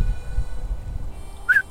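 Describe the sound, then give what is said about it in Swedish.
A single short, rising whistle to call a horse sounds near the end, clear against a low background rumble, brief like a quick call whistle. “Visslar jag på min häst.”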